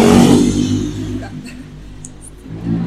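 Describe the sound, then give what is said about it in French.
A motorcycle engine revs loudly, its throaty roar easing into a lower rumble before building again at the end. “Une moto.”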